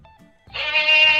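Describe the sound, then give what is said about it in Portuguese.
A short comedic sound-effect jingle for a 'bombshell' breaking-news segment: a quiet faint tone, then a loud, wavering animal bleat like a goat or sheep that fills the second half and stays strong to the end. “Eu tenho, eu tenho vinheta pra bomba, peraí.”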